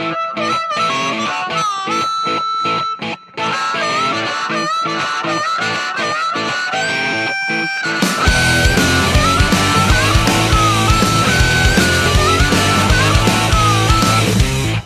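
A rock song plays with no talking: choppy, rhythmic chords with sharp beats at first, then halfway through the full band crashes in louder, with distorted guitar and heavy bass.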